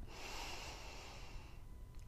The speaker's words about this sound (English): But just close your eyes and focus only on your breathing. Breathe in through your nose